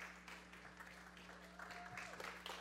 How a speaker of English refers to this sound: would you stand with me while we give her a round of applause?